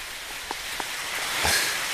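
Light rain patters steadily in a soft, even hiss, with a few distinct drops landing now and then. No one speaks.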